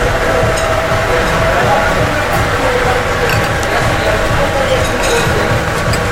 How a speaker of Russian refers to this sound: Мне, наверное, сок там выжимают. Или лед какой-нибудь колотят. Может, что-нибудь такое? Что ж так громко-то? Какой-то миксер. Миксер какой-то там. Смузи.